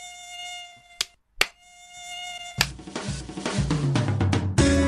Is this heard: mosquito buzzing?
yes